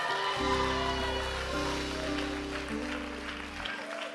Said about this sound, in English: Hey. Oh, I'm preaching better than you're clapping right now.